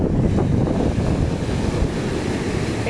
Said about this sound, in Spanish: Tengo un panorama azul turquesa, que encima está la playa limpiecita, sin sargazo, hermosa